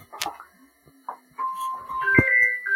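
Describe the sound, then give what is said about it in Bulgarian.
A mobile phone rings with a melodic electronic ringtone: a few brief clicks and bumps, then sustained, fairly loud beeping notes stepping between pitches, with no one talking over it. “Извинявайте, обаче ми извън на телефона. Забравя да го изключа.”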